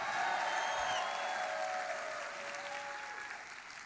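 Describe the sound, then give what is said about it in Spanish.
A church audience breaks into sustained, loud applause after the preacher calls for a shout of glory, a dense steady clatter of many hands, with raised voices shouting and calling out over it before the sound slowly eases. “My God, alguien de un grito de gloria.”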